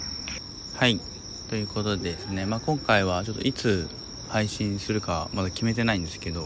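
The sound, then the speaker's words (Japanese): A steady, high-pitched chorus of summer insects chirps continuously at night in an outdoor plaza, sitting beneath a man's clear speech the whole time. “夏のね虫が、まあ、夜鳴く虫が入るのは BGM としてね入るのは久しぶりかもしれないですね”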